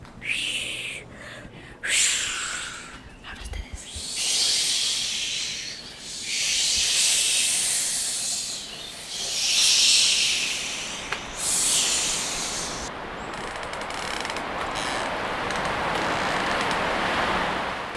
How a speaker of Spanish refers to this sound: mi sonido favorito es el de los árboles, el viento sobre los árboles.